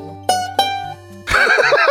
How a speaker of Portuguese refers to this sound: É... Eh, Caralho, cavalo. Que gratuito.